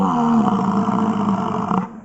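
A male European bison gives a deep, rumbling roar sustained for about two seconds, loud, with a throaty growling texture and no talking over it.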